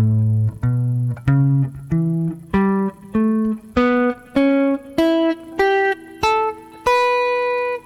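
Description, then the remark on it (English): A guitar plays a steady rising scale, about twelve evenly spaced notes climbing in pitch, each ringing briefly before the next, with no talking. “That is all dividing this scale.”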